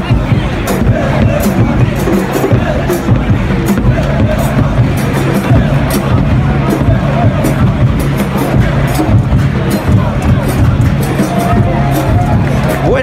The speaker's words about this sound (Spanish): se le rindió honor a Bill Hamid a medio tiempo con toda la fanaticada gritando desde la tribuna Bill Hamid, Bill Bill Hamid.